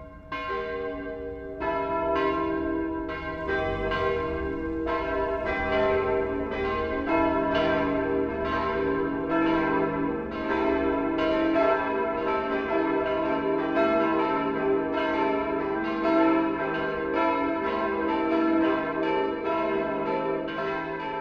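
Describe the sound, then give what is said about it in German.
Church bells of the Catholic parish church St. Stephanus in Stammham near Ingolstadt, Germany ring out the 12 o'clock noon chime, steady overlapping peals with rich ringing overtones and repeated strikes, loud and continuous with no voices over them. “Das Mittagsläuten kommt heute von der katholischen Pfarrkirche St. Stephanus in Stammham bei Ingolstadt.”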